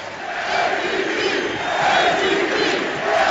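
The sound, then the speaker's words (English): A large arena crowd at a Knicks game chants loudly and continuously for Michael Beasley, the roar swelling and falling in a rhythmic wave of many voices with no single speaker standing out. “Listen to this crowd the chance aren't for Kristaps Porzingis, who has not played here in the fourth.”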